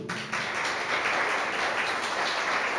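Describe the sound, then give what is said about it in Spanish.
An audience bursts into applause for Jesus at the preacher's call, a dense, steady wash of many hands clapping that starts abruptly and holds at an even, fairly loud level throughout, with no voices heard. “Aplaudanle a Jesús.”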